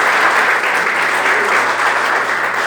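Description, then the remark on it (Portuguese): A church audience applauds at the close of a blessing, steadily and loudly, a dense, even wash of many hands clapping with no break, and no voices standing out above it. “Agindo Deus, o sangue de Jesus, pode aplaudir, vai em paz, eu não contigo.”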